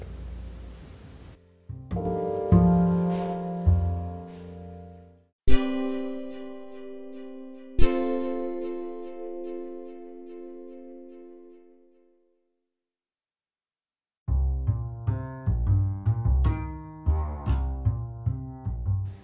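A loud, distorted electric guitar plays a self-composed riff written for a song: a few chords struck and left ringing until they fade, a brief silence, then a choppier, rhythmic run of notes. No one speaks.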